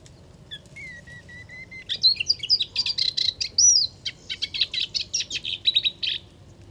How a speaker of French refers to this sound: La lucignole à moustache. La lucignole à moustache est une fauvette aquatique euh, strictement liée au pourtour méditerranéen et qui vit dans des roselières avec les pieds dans l'eau